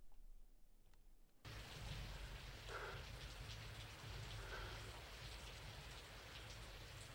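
After a moment of near silence, steady rain suddenly swells in, a dense hiss of drops pattering on surfaces that continues evenly with a low, rumbling undertone, opening an ambient music track.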